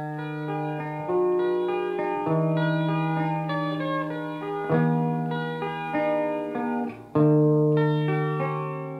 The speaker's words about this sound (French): Et là, cette intro de guitare, c'est Pavlov. tu entends ça, tu dis tu as 4 secondes pour aller inviter la fille à danser, sinon c'est trop tard